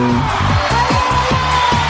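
An audience applauds and cheers steadily, a dense wash of clapping with whoops and shouts rising over it, loud and sustained throughout.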